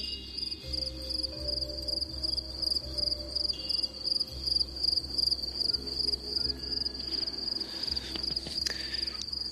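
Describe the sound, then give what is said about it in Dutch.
A steady chorus of crickets chirps in rapid, pulsing trills, filling the background continuously, with a low rumble of engine or wind noise underneath and no voices, at a deserted parking lot along the main road from Ankara toward Iraq in Turkey, when it is fairly dark. “Dit eh, geluid stelde ik me zo'n beetje voor toen ik aan de wereldreis dacht. Krekels, nou, hoef je niet eh, daar naartoe waar we nu zijn.”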